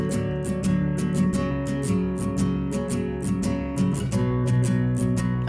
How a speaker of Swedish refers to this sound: det är alltså inte mycket till tis. Eh, det är det enda vi får höra, det är det här gitarrspelet.